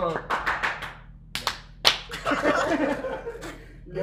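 A short burst of clapping from a few people, with sharp irregular claps that build and then fade over about four seconds, mixed with a little background chatter.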